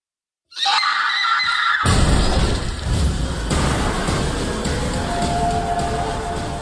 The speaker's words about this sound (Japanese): その音だけ聞いてもよくわからないんだってでもこの叫び声で始まる分かりやすいホラー映画の予告なんだなって感じは出だしからね